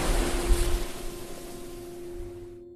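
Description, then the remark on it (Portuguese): Sea waves surge over rock in a single long, hissing wash with a low rumble underneath, gradually fading out. No one speaks. “Daí, o mar subiu de novo, num longo e lento suspiro. A água ferveu branca e rosada sobre a rocha.”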